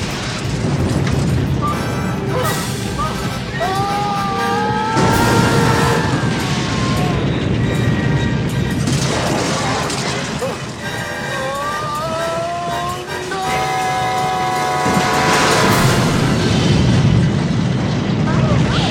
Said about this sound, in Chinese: 而医生先是撞了瓦斯车，之后撞导弹装甲车和烟火店，一连串的爆炸，总之死得很惨。